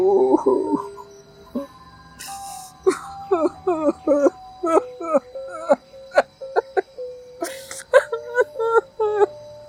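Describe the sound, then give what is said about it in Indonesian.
High-pitched whimpering and sobbing in a string of short, wavering bursts that rise and fall over several seconds, with brief gaps between cries. “… menangis”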